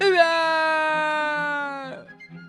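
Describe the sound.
A voice imitates a lion crying after losing a tug-of-war to a mouse: one long, loud, drawn-out wail held at a steady pitch that sags slightly for about two seconds, then breaks off abruptly.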